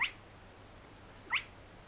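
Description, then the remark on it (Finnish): Two sharp, whip-like rising whistles of a spotted crake, each very brief and about a second and a half apart, standing out clearly over a quiet, low background hum. “Piiskamainen sivallus tai vihellys, miten nyt vain haluaa tuota omaperäistä ääntä kuvata, tuli hyvinkin tutuksi.”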